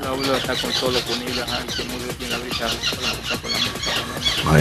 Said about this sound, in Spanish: se escuchan unos, unos, unas Pericos.